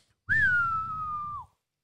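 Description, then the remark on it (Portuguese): A single long human whistle calling horses, about a second, holding a steady mid-high pitch before dipping at the end, fairly loud over a low breathy rumble, with no talking. “Aí eu chego, assobio.”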